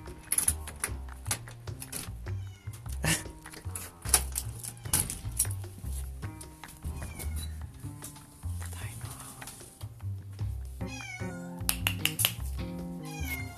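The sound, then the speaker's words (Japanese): A cat named Piko meows over and over, fairly loud, at a family home on January 1, 2020, a rainy day, its cries rising and falling over a steady background of low thumps and household noise. “猫がね、泣いてます。”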